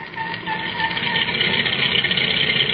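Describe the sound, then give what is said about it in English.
A delivery truck that has just arrived idles, a steady low engine rumble with a faint rhythmic chug that holds constant for a few seconds. Nobody speaks. “There's a truck just arrived with a delivery.”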